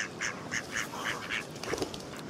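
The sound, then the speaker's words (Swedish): A series of repeated duck quacks in a quick, bouncy rhythm, moderately loud, with a lower burst of calls near the end and no talking. “Mina fina ankor.”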